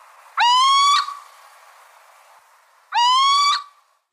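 Two loud, rising nasal calls of a little owl, each lasting about half a second and spaced a couple of seconds apart, heard clearly with no talking.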